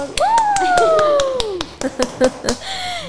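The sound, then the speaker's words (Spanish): Scattered, uneven hand claps from a small group on a show set welcome arriving guests, mixed with a long drawn-out vocal cheer that rises and then slowly falls, followed by a few more claps. “Vamos a un aplauso para ellos.”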